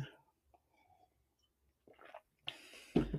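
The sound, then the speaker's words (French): A quiet, small sip of water: faint mouth clicks and a soft slurp, then a louder gulping swallow with a wet squish at the end. No one speaks. “Prendre une petite gorgée d'eau”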